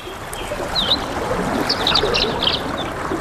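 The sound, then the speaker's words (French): A steady wash of a gently flowing river fills the background while several birds chirp and twitter in short, bright bursts above it, with no voices present. “Voilà, les oiseaux, le bruit de l'eau, d'une rivière qui s'écoule tranquillement,”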